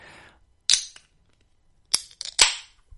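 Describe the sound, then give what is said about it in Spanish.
A beer can being opened: a sharp metallic snap, then a cluster of crisp pops and clicks with short fizzy hiss trailing off, loud against silence, with no one talking. “Es que de verdad, el sonidito de la lata haciendo.”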